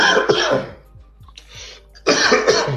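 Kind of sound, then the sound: human body sound, coughing and throat clearing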